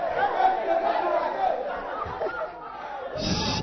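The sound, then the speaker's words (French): An audience chatters noisily, many overlapping voices forming a steady, fairly loud babble, with a burst of louder commotion near the end. “Pourquoi vous faites tant de bruit comme ça?”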